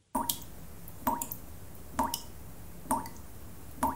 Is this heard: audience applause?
no